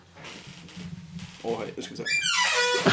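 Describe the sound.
An office chair creaks with a series of high, rising squeaks that grow louder and more drawn out toward the end, while a man speaks briefly over it.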